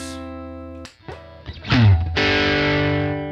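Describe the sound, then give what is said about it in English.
Electric guitar through an overdrive pedal with light grit: a sustained chord rings, a few picked notes and a quick strum follow, then another full, slightly crunchy chord rings out. “And you can definitely get uh, those classic tube screamer sounds a lot easier with this than with the Palisades.”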